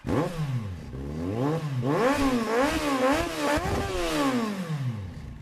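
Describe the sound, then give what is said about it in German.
Loud rally car engines rev repeatedly, their pitch rising and falling in sweeping waves as the throttle is worked, continuous with no talking. “Motoren heulen ganz laut auf, wenn sie am Werk ist.”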